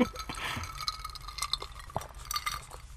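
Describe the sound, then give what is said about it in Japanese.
Several bright glass clinks ring out at irregular moments in a toast with Shirataki, a few short chimes with brief ringing tails over a quiet hum, with no one talking. “まずは今週もそうですね白滝白で乾杯をしましょうはいはいじゃあ乾杯乾杯”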